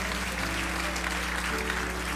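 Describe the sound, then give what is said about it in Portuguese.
A church audience at a night service breaks into sustained applause for King Jesus, a dense wash of many hands clapping steadily at a fairly loud level, with a faint steady hum underneath. “Aplauda o Rei Jesus e tome o seu assento nessa noite.”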